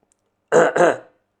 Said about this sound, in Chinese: 龙兵咳嗽了一声，宁静这才离开夏雷，转身往基地内部跑去。